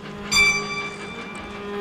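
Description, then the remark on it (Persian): A train whistle from a film, heard while the train itself is unseen, sounds with a sharp, loud onset and then holds a steady, sustained tone, fading slightly over the rest of the moment against a low rumbling background. “صدای سوت قطار ابتدا و انتهای فیلم را به هم می دوزد و محمد زمانی را به حرکت در می آورد.”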